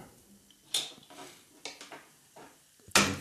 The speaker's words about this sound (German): So, dann stelle ich dir dein Glas mal hin.